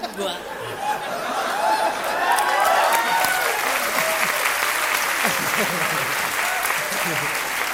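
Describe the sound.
Sustained audience applause, a dense steady wash of many hands clapping at even loudness throughout, with some cheering and crowd voices mixed in.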